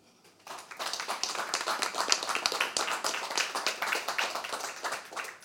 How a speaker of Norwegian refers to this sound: Gi en varm applaus til Erlend og Nødvendt.